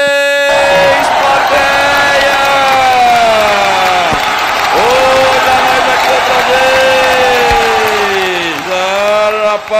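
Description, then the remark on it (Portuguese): A loud, sustained burst of studio audience cheering and whooping at a TV program, with voices holding long, sliding tones over a constant wash of noise for about ten seconds, as the program goes to a break. “Plateia, cadê você?”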